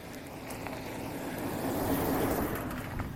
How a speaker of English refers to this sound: There's a dump truck.